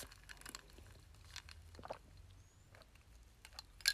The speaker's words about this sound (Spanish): Ah, pero déjenme, le doy un trago a mi café. Perdón. Lo tengo aquí y, es inevitable, ¿sabes?